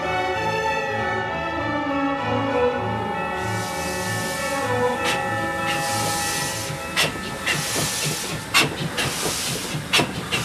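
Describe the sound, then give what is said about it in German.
A train rumbles steadily through a snowy region while steam hisses loudly and broadly, with repeated sharp bursts of hissing spurting out over the rolling, rhythmic clatter of the wheels. No voices. “Boah, was bin ich froh, dass die Heizung im Zug funktioniert.”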